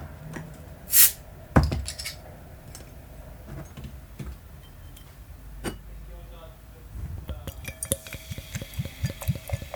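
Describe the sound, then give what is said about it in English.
A bottle cap pops off a bottle of Duvel, a Belgian Golden Strong Ale, with a short, sharp hiss near the start, followed by a clink, then the beer glugs and fizzes as it is poured into a glass. “Uh, so without further ado, I'm going to open a beautiful bottle of Duvel”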